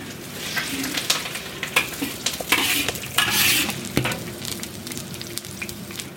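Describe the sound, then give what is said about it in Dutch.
Onions sizzle and sputter in a frying pan with lime leaves and boemboe spice paste from the food processor, a steady hiss broken by irregular sharp pops and crackles, with occasional scraping from stirring; no one speaks. “En het begint lekker te sputteren. Je ruikt ook meteen de uien.”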